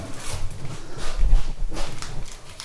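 A male cat making noise while trying to get in to Mimimize, a run of scuffling, scratching sounds with dull low thumps, fairly loud and uneven in rhythm, with no one talking.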